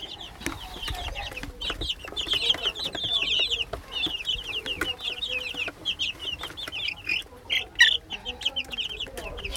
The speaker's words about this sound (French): Il y a aussi des poules et apparemment des bébés poules. Bonasiwa! just learn few words. Oh God. Elle soulève une petite couverture et là, plein de petits bébés poules.